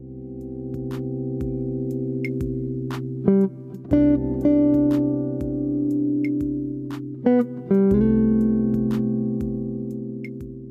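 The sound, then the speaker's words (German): A sustained, steady keyboard chord on C rings out with a melody note, D (the ninth), that shifts twice and, instead of resolving to C, settles downward onto the sixth, played alone at moderate volume with no talking. “Mache ich aber nicht, sondern ich löse das dann unten auf die sechste auf.”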